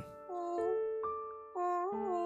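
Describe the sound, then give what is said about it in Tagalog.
A baby cries in a string of high, wavering wails that rise and fall without pause, fairly loud, with no one talking over it. “Baby, tahan na.”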